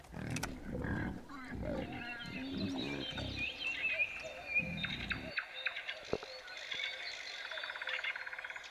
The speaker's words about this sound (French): Mais c'est un cochon C'est un porcelet mais ils sont en train de les tuer Mais c'est horrible quand même Mais ils vont les tuer